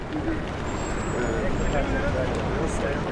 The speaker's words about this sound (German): Am Taksim stockt der Verkehr.